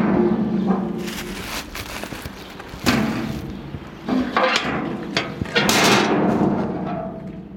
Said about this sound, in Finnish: Tuo ääni, jonka kuulitte, oli meidän tuottajan Jarnon yksittäinen vanhojen vaatteiden kassi, joka tipahti kierrätysastiaan.